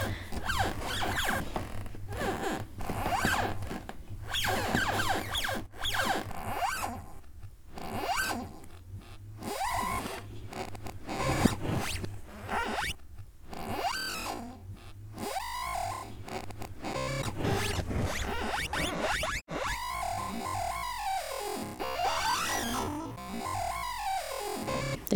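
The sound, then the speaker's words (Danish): A wooden floor that creaks all over creaks continuously, with rasping, crackling groans and drawn-out squeaks rising and falling in pitch, fairly loud and with no one talking. “Og så er der selvfølgelig gulvet, øh, som knirker stort til overalt.”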